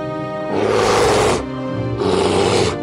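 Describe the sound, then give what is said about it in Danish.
A brown bear roars twice, loud: two deep, rasping bursts of about a second each, separated by a short pause, over a low rumbling undertone. “En aften, i forsøg på at forsvare sig selv, forvandlede Marian sig til en brun bjørn og gik til angreb på sin egen mand.”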